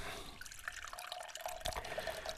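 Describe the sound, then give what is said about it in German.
Water trickles and drips steadily during watering, with scattered bright droplet plinks over a soft continuous wash, fairly quiet, no voices. “heilige Bewässerung war noch nicht vorbei”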